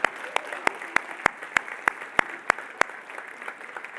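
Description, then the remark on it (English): Audience applause at a Christian sermon, given for Jesus, with a steady, rhythmic beat of sharp claps, about three per second, over a dense wash of crowd clapping; the strong beats stop near the end and softer applause trails on. “Would you please give Jesus some love through applauding for that?”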